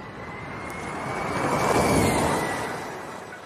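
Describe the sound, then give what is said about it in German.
A car drives past, its broad rushing noise swelling steadily to a peak midway and then easing off, with a thin high whine running through it. No one speaks. “Ich sag dir, was du jetzt als nächstes hörst. Ein Auto”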